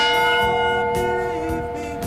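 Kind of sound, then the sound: signal or alarm, church bell ringing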